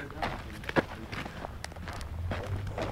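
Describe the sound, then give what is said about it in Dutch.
Footsteps crunch steadily across rough outdoor ground at a walking pace toward a pile of rubble, with a faint low rumble of wind or traffic underneath and a brief bit of voice. “Nou, lopen we daar even heen.”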